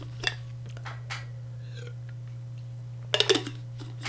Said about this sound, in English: And I'm gonna have a sip of water here.